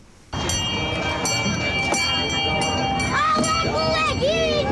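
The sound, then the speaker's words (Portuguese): A small tourist train circulates through the busy Praça da Autonomia at the Christmas village in Funchal amid a steady wash of crowd chatter, with ringing bell-like tones and children's voices rising and falling over the constant background noise. “Há jogos tradicionais, várias atividades e um comboio que circula na Praça da Autonomia”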